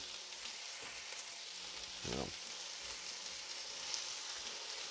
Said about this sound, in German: Und die kommen mit in die große Pfanne zum Leberkas und zu den Schupfnudeln, die da einfach auch bis sie mit anbraten.